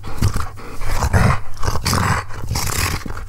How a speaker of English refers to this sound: I don't know. It sounds like the dogs are getting really fucking pumped about this.